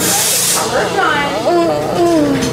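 A loud medical machine used during an abortion procedure starts with a burst of rushing, hissing air, then settles into a steady drone with wavering whining tones, continuous throughout.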